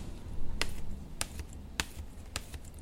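A straight razor is stroked against a leather strop to sharpen it so it cuts as perfectly as possible, in a steady rhythm, four crisp slapping swipes about half a second apart, over a low background hum, with no talking.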